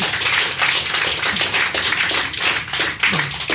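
Audience applause for a guest: a dense, steady wash of many hands clapping at once, loud and sustained throughout with no voices over it.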